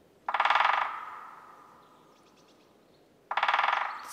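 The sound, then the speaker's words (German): A woodpecker drums in two quick rolls high in the treetops, each a rapid burst of hard, dull taps on wood, separated by a few seconds of quiet; the second roll starts near the end and is cut off. “Klopfen gehört zum Specht.”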